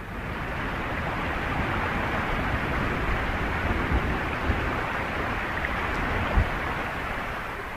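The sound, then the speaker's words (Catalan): Heavy rain pours down in a steady, dense wash of hissing noise that stays constant throughout, with a few faint low thumps and no voices. “Tinc tot el material al cotxe i ara plou a bots i a barrals.”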